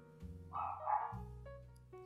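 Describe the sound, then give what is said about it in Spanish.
A dog barks in a few drawn-out, tonal bursts, fairly quiet, with no one talking over it. “Pinche perro.”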